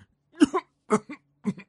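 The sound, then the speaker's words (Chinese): An old grandpa woodpecker in a tree hole coughs three times, each a rough, throaty double hack with a short gap between, performed by a human voice; no words are spoken. “说完，啄木鸟爷爷又咳嗽了两声。”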